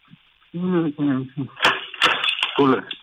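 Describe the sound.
A person speaks briefly, then sharp metallic clicks and rattles follow as keys turn to lock a door, mixed with more talking.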